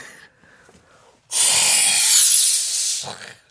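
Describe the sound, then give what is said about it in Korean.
A person imitates a whale surfacing and breathing through its blowhole with a single loud, breathy whoosh of about two seconds, rising sharply, then fading with a soft huff at the end. “숨 쉬는 거.”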